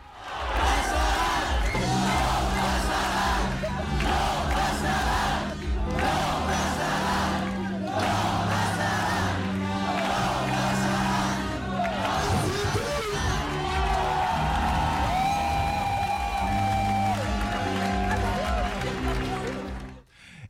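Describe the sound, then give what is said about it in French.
A loud crowd at a protest action against water reservoir basins (bassines) shouts and cheers in rhythmic, chant-like bursts. The dense roar of many voices continues throughout, with shrill whistle-like tones rising above it in the second half. “Vous venez d'entendre donc des extraits de donc euh, de l'action contre les bassines”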